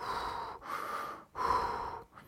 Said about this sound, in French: là maintenant, tu me regardes droit dans les yeux et tu respires avec moi. Tu inspires, tu expires, tu inspires, tu expires, et tu souffles comme ça.